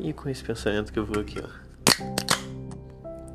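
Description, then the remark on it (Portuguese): A man speaks briefly, then a beer bottle is opened with one hand: a sharp snap followed by a second quick crack, with a faint metallic ringing that lingers afterward. “Sim, eu abri essa cerveja com uma mão só.”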